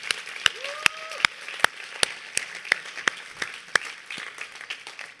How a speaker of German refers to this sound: Geben wir noch einen Applaus denen.